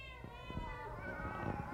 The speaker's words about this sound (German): du Katze, Katze?